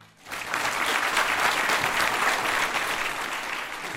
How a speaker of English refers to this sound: A packed auditorium in Ohio University's Schoonover Center is on their feet. Thunderous applause rings out. A large standing ovation.